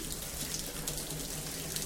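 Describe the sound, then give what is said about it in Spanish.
Shower water runs in a steady, continuous hiss and patter, even in loudness throughout, with no voices or other sounds. “Claro, lo fácil hubiera sido, como hacen mis magníficos compañeros de podcast, coger un sonido de ducha, ponerlo de fondo, editarlo, dejarlo todo muy bonito.”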